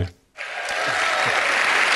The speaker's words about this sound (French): Ils font comme chez Apple, euh, ils mettent des employés dans la salle parce que là, à chaque fois qu'il dit un truc, ça crie et ça applaudit.